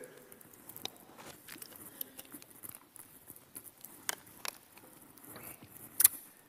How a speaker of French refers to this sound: Je vais prendre une gorgée d'eau, s'il vous plaît.